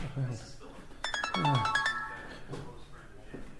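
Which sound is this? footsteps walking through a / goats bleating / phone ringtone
phone ringtone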